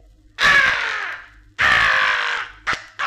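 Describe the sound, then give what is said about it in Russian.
A crow caws loudly, two long harsh calls followed by two short clipped ones, with no other sounds around them. “Ворона! Ворона, она схватила два моих зернышка!”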